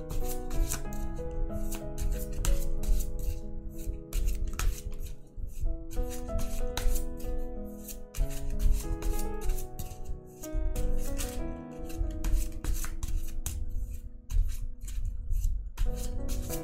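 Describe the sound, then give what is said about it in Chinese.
Tarot cards are shuffled in repeated papery riffles and rubs, with soft flicks as one card is drawn for a reading, all over a steady bed of background music and no talking. “好，来抽一张牌。”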